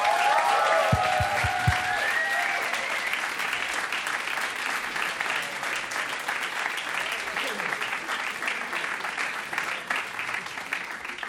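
An audience bursts into sustained, steady applause for a band, many hands clapping densely and evenly at moderate loudness; at the start a few low thumps and a brief trailing tone fade into the clapping.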